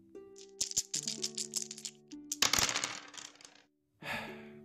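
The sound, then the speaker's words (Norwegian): Dice rattle and clatter across a hard surface in a quick burst of sharp clicks, then tumble to a stop; they are rolled to pick a program on Radio Revolt. After a brief silence another short rattle follows, with faint sustained tones underneath. “Terningene vil gi deg svaret.”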